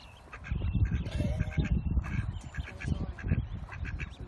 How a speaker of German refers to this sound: Am Morgen weckt uns eine Entenfamilie. Die Küken hüpfen fast in unseren Campervan und fressen uns aus der Hand, während die Mutter aufpasst, dass den Kleinen nichts passiert.